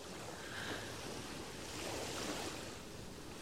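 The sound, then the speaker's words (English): Steady ocean surf washing toward shore, a broad continuous rush of waves with gentle swells in loudness, heard alone with a touch of wind. “Look at the sea. We're like those waves trying to come to shore, but there's always another force that's pushing and steering us all along.”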